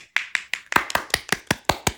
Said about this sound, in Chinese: 鼓掌！